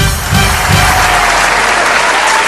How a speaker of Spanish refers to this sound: Gracias, gracias. No más aplausos, todos son muy amables.